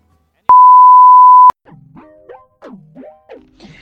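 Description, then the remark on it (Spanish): A single loud, steady answering-machine beep lasting about a second, followed by a quick series of playful sliding electronic chirps that swoop up and down in pitch. “Por favor, deja tu mensaje después del VIP.”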